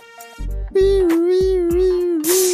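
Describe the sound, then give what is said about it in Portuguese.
A sci-fi sound effect of the Nave Mãe mothership spaceship: a loud, steady electronic drone with bright layered overtones, punctuated by sharp whooshing bursts and a hissy swell near the end, with no talking. “Esse é o barulho da Nave Mãe.”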